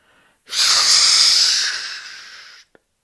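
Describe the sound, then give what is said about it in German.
A voice imitates a small red fire extinguisher spraying and fogging everything in: one long, loud breathy hiss that starts abruptly, holds steady for about two seconds, then fades slightly and cuts off. “mit dem kleinen roten Feuerlöscher vor uns und nebelte alles komplett ein.”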